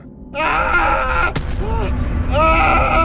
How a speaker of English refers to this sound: And a screaming erupted, startling me.